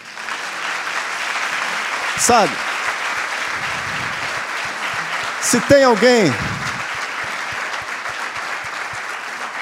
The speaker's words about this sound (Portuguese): Posso te pedir um favor? Você pode dar uma salva de palmas para o Senhor?